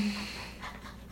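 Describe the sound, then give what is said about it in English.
A dog pants in quick, rhythmic breaths, soft but steady for about a second, with no voices over it. “get your life together, dog.”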